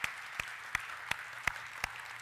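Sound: audience applause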